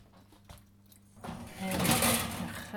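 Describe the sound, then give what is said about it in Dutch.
After a short quiet moment, a steady rasping and scraping starts and builds as cake batter is poured and scraped from a bowl into a baking tin. “Zal ik eens even mijn deeg in de vorm gieten ondertussen?”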